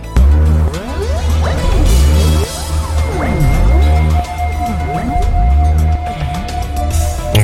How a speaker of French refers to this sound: Ils ont mis des capteurs et chaque fois que bébé bouge, ça se transforme en son qui est ensuite retranscrit sur un synthétiseur. Écoutez, euh, ça donne ça.